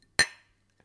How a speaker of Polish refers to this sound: Właśnie pijemy, by zapomnieć. Właśnie, to teraz pora na łyka herbaty. Cheers.